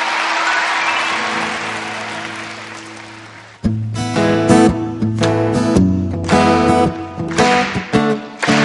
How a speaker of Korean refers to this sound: 네, 여러분 박수 부탁드리겠습니다.